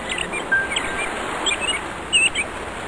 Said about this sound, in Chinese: 有飞鸟从林间惊起，穿过浩瀚晴空，在初春还未暖的阳光里。鸣一声清甜悠长的调子，在大海粼粼波光间失了踪迹。